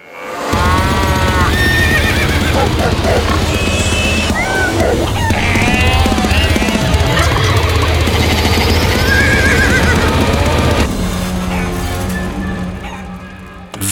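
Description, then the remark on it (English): A loud, busy theme tune for the TV show Stable of Filth plays for about eleven seconds, packed with whinnying horse sounds and clip-clop rhythms, then cuts off and fades into a low hum. No one talks. “They've also sent me the theme music as well, which is very exciting.”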